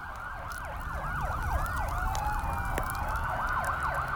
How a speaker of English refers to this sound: Look at all those fire trucks, I said,